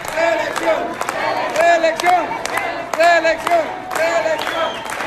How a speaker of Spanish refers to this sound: Pero llegaron muchas personas al, al evento y escuchemos lo que la gente dice, reelección dicen.